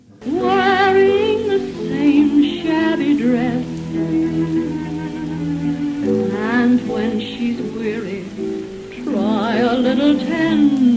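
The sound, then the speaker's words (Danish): A 1933 original recording of a love song, with a wavering, vibrato-rich sung melody over sustained accompaniment, wrapped in a steady crackly hiss, playing loud and continuous throughout. “og lyder sådan her i originalversionen.”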